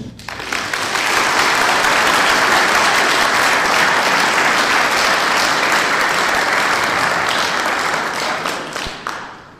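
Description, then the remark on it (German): An audience applauds to welcome Albrecht Müller, founder of the NachDenkSeiten; a dense wash of many hands clapping that swells quickly, holds at a loud, even level for several seconds, then tapers off at the end. “Wieder einen Applaus.”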